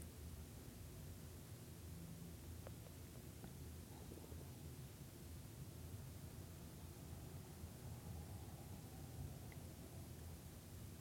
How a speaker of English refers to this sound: you begin to notice that you can faintly hear a little bit of a stream nearby, and it's really a lovely and relaxing sound. It almost sounds like bubbles because you can hear that the water is traveling over rocks.